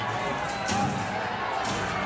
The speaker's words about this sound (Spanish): Los gritos de sí se pudo, sí se pudo, y de inmediato la corretiza.